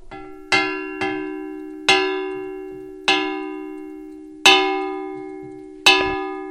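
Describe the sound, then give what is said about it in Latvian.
A wooden spoon made in the mid-20th century strikes a zinc milk can made in the 1970s six times at uneven intervals, each hit giving a bright, bell-like metallic clang with a steady low hum that rings on and slowly fades. “Ar, lūk, mana balss no pagātnes, ar pagājušā gadsimta vidū darinātu koka karoti, es uzsitu pa pagājušā gadsimta 70.”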